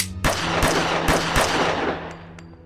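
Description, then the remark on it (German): Four loud gunshots from a gun fired through a locked door ring out in fairly quick, slightly uneven succession, each a sharp crack followed by a reverberant tail that lingers and fades after the last shot. No one speaks. “nimmt seine Waffe und schießt mit der vollen Intention, Weaver zu treffen, viermal durch die Tür”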